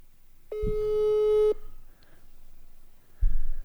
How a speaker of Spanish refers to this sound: le estoy marcando.